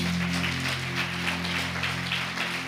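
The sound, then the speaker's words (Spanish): A church audience claps together in praise of God during a morning worship service, a steady, dense wash of applause that holds a constant level, with a low sustained hum from an instrument or sound system underneath. “Le un fuerte aplauso a nuestro Dios.”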